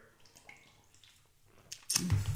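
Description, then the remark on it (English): A quiet, wet slurping sip of beer, followed by a brief liquid gulp and faint clinking at the end, with no talking. “Another sip of beer.”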